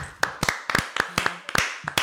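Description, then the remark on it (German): A few people clap their hands together briefly, a quick run of sharp, slightly uneven claps, about a dozen in two seconds, with no talking. “Wollen wir alle klatschen kurz?”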